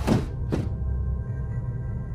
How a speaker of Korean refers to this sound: 난 공포심을 지우기 위해 짐짓 강하게 힘을 주어 창문을 닫았다.